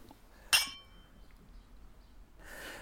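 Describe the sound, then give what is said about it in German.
A single bright clink of glasses touching in a toast, with a clear ringing tone that fades over half a second, followed by a soft breathy exhale. “Äh, zum Wohl. Zum Wohl.”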